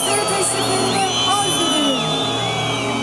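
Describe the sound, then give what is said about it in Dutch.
A large, angry crowd at a commemoration jeers as a minister comes onto the stage, filling the air with a loud, sustained roar of overlapping shouts and calls, steady throughout with no single clear voice standing out. “Veel mensen zijn ook boos. En dat is te horen bij de herdenking. Zodra een minister het podium opkomt, hoor je dit.”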